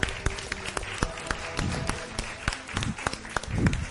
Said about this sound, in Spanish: Quiero, ya sé que están cansados de sus manitas, pero eh, quiero por favor que les den un aplauso muy fuerte a Carlita que también gracias a ella es posible todo esto.